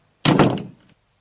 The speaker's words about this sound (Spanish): En el mismo momento en que mi mano traspasó el dintel de la puerta y se adentró en la nada, yo fui nada, y la puerta se cerró detrás de mí.